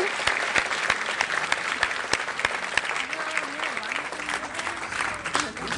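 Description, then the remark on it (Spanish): At an awards ceremony, an audience claps steadily, a dense wash of many hands with sharp individual claps poking through, sustained at an even level for several seconds, with faint voices murmuring underneath. “Así que muchos aplausos ahora.”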